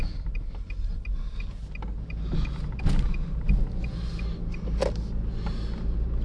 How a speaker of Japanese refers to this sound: まあいつもね車乗りながらまあポッドキャストやってるんですけどまあ運転は集中できるねあんま関係ないですね